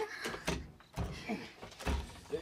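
A stuck door is shoved hard several times, giving a few heavy thumps and rattles spaced irregularly over a couple of seconds.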